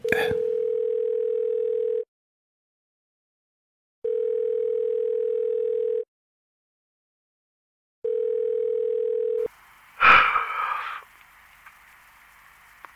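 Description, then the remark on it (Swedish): A telephone ringback tone sounds three times as a call is placed, each steady two-second beep separated by equal silences, then a sharp click and rustle as the line picks up, leaving a faint hiss. “Men vi ringer upp honom här direkt då.”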